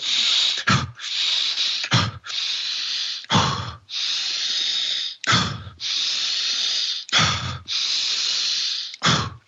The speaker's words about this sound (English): what it is, it's a very um, deep diaphragmatic breath, very aggressive, where you're oxygenating.